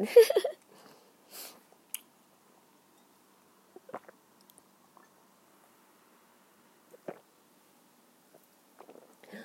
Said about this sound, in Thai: ขอจิบน้ำก่อน